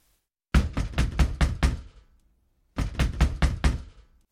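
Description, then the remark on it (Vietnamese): Someone pounds hard on the door of a three-storey house in a small alley in two loud bursts of about six rapid, heavy blows each, separated by a short pause, with no voices. “đập cửa âm âm.”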